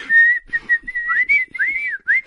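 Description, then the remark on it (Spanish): A whistle is blown repeatedly: a few steady high toots, then several swooping notes that rise and fall in pitch, fairly loud, with no talking over it. “Aquí tienes un silbato.”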